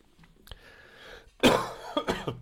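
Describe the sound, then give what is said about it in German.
A harsh cough from a person recovering from a cold bursts out, followed by a couple of shorter raspy coughs and throat-clearing sounds, after a quiet stretch with a faint click. No talking. “Also wenn ihr viel Geschniefe und Geschneuze hört, dann äh, denkt euch das einfach weg.”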